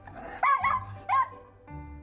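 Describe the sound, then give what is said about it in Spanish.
A dog barks twice in quick succession, loud, with a short gap between the two sharp, yelping barks and no one speaking. “Eso sí, si ladra, mira a ver qué está sucediendo.”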